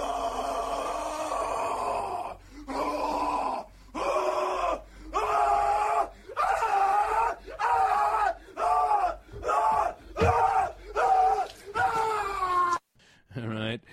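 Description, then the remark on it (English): A man screams over and over in anguished, drawn-out howls, about ten loud bursts separated by short gasping pauses, raw, strained and intense; Nick Cage's horror screams from the film Mandy. “Where mine, if I absolutely hated it, I give it the Nick Cage from Mandy horror screams.”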